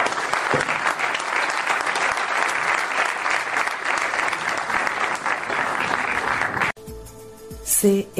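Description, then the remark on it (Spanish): Steady, dense audience applause at the close of a panel discussion, many hands clapping at once, sustained and loud for several seconds, then cutting off abruptly into a brief burst of other sound. “Así que muchas gracias por este aplauso, lo queremos despedir.”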